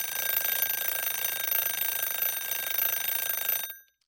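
A timer alarm marking the end of seven minutes rings in a steady, continuous high-pitched electronic trill for several seconds, then cuts off abruptly. No voices are heard.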